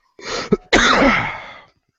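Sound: sneeze or cough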